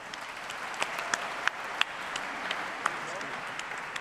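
A crowd applauds steadily, a dense wash of many hands clapping at a moderate distance, with a few sharper individual claps standing out now and then.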